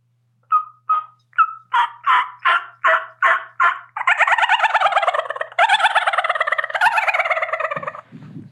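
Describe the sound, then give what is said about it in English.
A person's voice imitates a turkey: a rising series of about eight sharp yelps, then a loud, rapid rattling gobble lasting several seconds, alone with no talking. “At least you can gobble. I can't even gobble. Does that sound like a gobble?”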